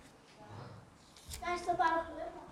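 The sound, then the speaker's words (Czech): Voices of children arriving for a sermon chatter, rising into a brief burst of higher-pitched talking and calling in the second half before settling, with a faint murmur underneath. “Aha, tam jsou děti, přišly.”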